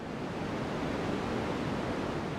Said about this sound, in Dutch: In hun oren horen ze een ruis.